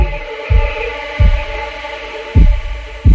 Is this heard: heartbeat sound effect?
yes